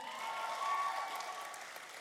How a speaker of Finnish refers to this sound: Kiitos. Annetaan aplodit vielä.